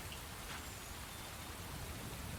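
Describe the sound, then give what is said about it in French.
Steady rain pours down, a dense continuous hiss of drops spattering on surfaces, even and unbroken throughout with no voices. “Oui, donc, il a commencé à pleuvoir.”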